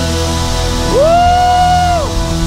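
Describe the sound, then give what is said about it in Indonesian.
An audience claps in a steady, dense wash of applause lasting the whole moment, while a single loud whoop or whistle rises, holds and falls away in the middle. “Bisakah kita memberikan tepuk tangan?”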